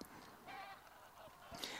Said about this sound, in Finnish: Lentäessään metsähanhiparvet pitävät epämääräisen kuuloista kaakatusta tai porinaa – tottumattoman korviin metsähanhen eli metsurin äänet muistuttavat muiden hanhiparvien ääntelyä. Yksittäisen linnun lentoääni on kaksi- tai kolmitavuinen kaakatus.